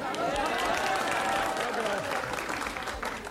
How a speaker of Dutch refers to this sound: Mag ik even weten waarom u daarom klapt? Daar komt u ook vandaan.